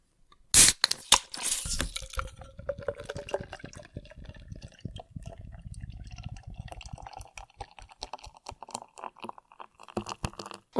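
A can of Guinness beer with a widget cartridge inside cracks open with a sharp pop and a burst of hiss, followed by several seconds of crackling, fizzing foam and dribbling liquid. No one speaks.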